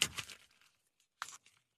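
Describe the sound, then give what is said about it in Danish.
An ordinary sheet of paper is folded, with a crisp rustling burst at the start, then a short, sharp crease-like crinkle a moment later, fairly quiet. “Her er et stykke papir, ikke? Ja. Ganske almindeligt Jeg kan papir. godt se det. Nu folder jeg det sammen.”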